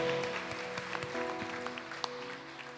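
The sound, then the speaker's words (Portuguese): An audience breaks into steady applause, many overlapping claps blending into a dense, even wash, with sustained musical tones humming underneath throughout. “Em nome de Jesus, se você querer, dê uma salva de palmas.”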